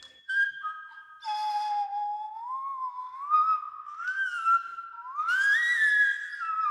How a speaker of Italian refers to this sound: Il flauto neandertaliano è stato ricostruito nell'ambito di EMAP, il progetto europeo di archeologia musicale, ed è stato suonato da un eh, musicista. E questo è il suono originale del flauto neandertaliano.